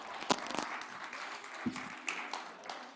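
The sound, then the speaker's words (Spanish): A crowd applauds a volunteer with a steady, dense patter of many hands clapping, moderately loud, with a few brief sharper claps and a faint voice or whistle-like tone rising through it. “Un aplauso a nuestra voluntaria.”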